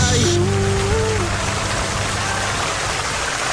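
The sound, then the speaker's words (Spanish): A steady, dense hiss of rain falling, fairly loud throughout, with a brief low droning tone near the start before the downpour carries on alone. “¿Qué es lo que más apetece en un día de lluvia?”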